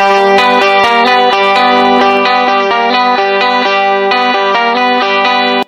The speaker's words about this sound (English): so I'm gonna EQ that and make it sound a little cleaner and take out some of that low information. make it jangle, and then I'm going to plug it into that Fairchild EQ to get that sort of … sound.